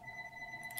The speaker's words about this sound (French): Désolé pour le téléphone, je suis peut-être trop populaire